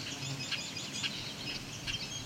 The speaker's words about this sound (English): Oh, and this this deeper call is a bobolink. A male. He's calling. He's annoyed. So if you've been listening to the annoyed Red Wings, this guy sounds a little more serious,